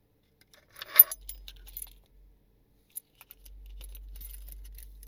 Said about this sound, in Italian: Infila le chiavi in tasca.